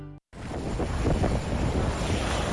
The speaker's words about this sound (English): This is a familiar a sound in Illinois. Cold snap grappling with heavy snowfall while bracing themselves for a significant winter storm.